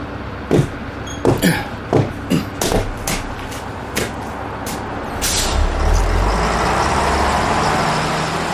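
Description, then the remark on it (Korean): A large bus rumbles to a halt after a series of sharp metallic clunks, then a long, loud air brake hiss swells and lingers. “나는 집에 가기 위해 버스에서 내린다.”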